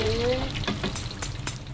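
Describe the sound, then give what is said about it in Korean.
Steady sizzling and crackling of sweet potatoes and vegetables deep-frying in hot oil at a fried-food shop in front of a bus stop in Daebang-dong, Seoul, with sharp little pops scattered throughout and a faint murmur of voices in the background. “이제 고구마 튀기고 이제 저거 튀기는데요, 야채.”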